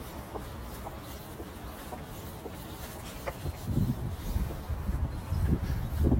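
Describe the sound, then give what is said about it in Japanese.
Short, clucking calls from a large bird, not a pigeon, come in scattered bursts over a steady outdoor hush at a quiet spot in Ikejiri, growing a bit louder toward the end, with no one talking. “池尻ってすごく静かでいいとこだね鳥もいるしなんかでけえ鳥いるこれ何の鳥かな鳩じゃないお飛んだ”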